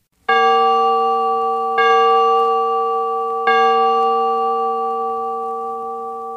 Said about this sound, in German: Die Glocken verkündeten nach dem Mittagläuten den Totenfall an, sonst erst nach dem Aveläuten am Abend. Je nach der Art des Läutens konnte man wissen, welchen Alters und welchen Geschlechtes der Verstorbene sei.